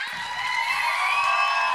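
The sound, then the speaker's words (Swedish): A crowd cheers and shouts steadily at a fairly loud level, a dense wash of voices with high whoops rising above, holding constant for under two seconds. “Låt mig få höra en saftig applåd.”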